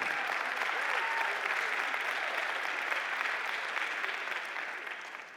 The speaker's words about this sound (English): And yes, ladies, I know you're clapping, but this is for you too.